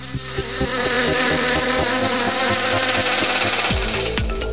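A loud swarm of bees buzzing steadily, the drone wavering and pulsing in pitch throughout, with no voices present.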